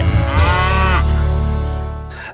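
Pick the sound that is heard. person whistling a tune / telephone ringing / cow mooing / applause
cow mooing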